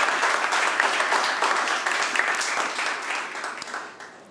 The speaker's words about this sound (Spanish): Dámosle un aplauso al Señor, un fuerte.